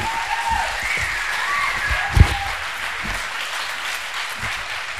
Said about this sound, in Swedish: En varm applåd